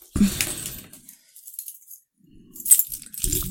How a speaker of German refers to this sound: So, Schlüssel werfen wir mal wieder hin. Auf den Tisch. Auf den Tisch mit dem Schlüssel. Ähm, zack. Oh, ich habe hier sogar zwei Schlüssel.